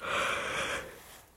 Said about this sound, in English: Child, I don't know why I get up on this podcast yawning. It is so weird. I hadn't yawned all damn day. Get on here and start yawning. And it's like clockwork, so I don't know.